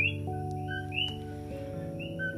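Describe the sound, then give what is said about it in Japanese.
Coqui frogs call at night in short, high whistled chirps, several overlapping from different distances, over a steady low humming drone; no one speaks. “これね実はカエルなんですよコーキーフログと呼ばれるカエルなんですけれどもこうやって夜になるとコキコキってまるで鳥のような声ですよねこれが一晩中朝まで続くんです”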